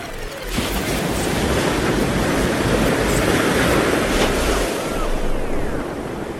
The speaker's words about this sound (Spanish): y el mar, y las olas.